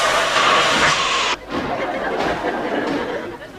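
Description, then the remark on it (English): A loud burst of steam hiss fills the first second or so, then cuts off abruptly, leaving a busy train-station hubbub with indistinct chatter and rumbling in the background. “So the entire Muppet Show is going to be held at a train station tonight.”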